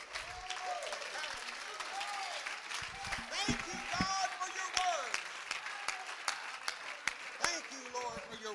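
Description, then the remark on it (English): An audience claps their hands during a sermon in a steady, dense wash of applause, with scattered voices and cheers rising over the clapping throughout. “Let's clap our hands.”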